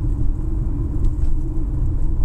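Steady low-frequency road rumble and engine drone from inside a moving car, a continuous muffled hum with no voices, holding at an even, fairly loud level throughout.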